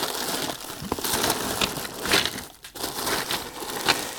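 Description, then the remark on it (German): An empty plastic bag being crinkled and handled continuously as a cable is put into it, a dense crackling rustle with short bursts of sharper crackles, no talking. “So, ich habe gerade eine leere Plastiktüte gefunden.”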